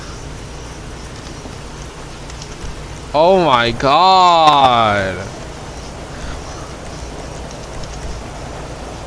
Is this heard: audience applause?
no